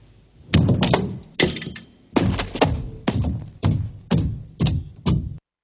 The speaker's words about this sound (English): He ends there, banging his head on the wall of the confessional.